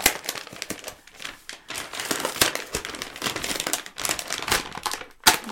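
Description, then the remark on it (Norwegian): Loud, continuous crinkling of paper, dense crackly rustles with sharp bursts throughout, with no voices. “er det er knitring. Knitring i papir.”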